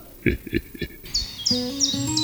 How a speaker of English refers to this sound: the sun's shining, birds are singing, and all feels right in the world.